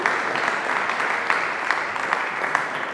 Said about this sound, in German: Super. Dankeschön. sehr gut, Applaus.